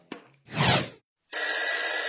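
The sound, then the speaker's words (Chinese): A short click and a soft whooshing swell, then an alarm clock bursts into loud, continuous metallic ringing, a shrill high-pitched bell that keeps going without a break. No one speaks. “蓝小瑞是被闹钟叫了三遍才醒的”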